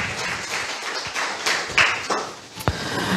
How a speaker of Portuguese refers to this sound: Amém? Aplauda ao Senhor. Pode se assentar.